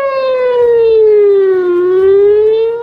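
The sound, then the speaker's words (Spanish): A loud air-raid alarm siren wails continuously in Jerusalem during a rocket bombardment from Gaza, its tone sliding slowly down and then rising again, a sustained mournful pitch with rich overtones and no voices. “Para mí, en Jerusalén, escuchar después de años una vez más el ulular de las sirenas de alarma”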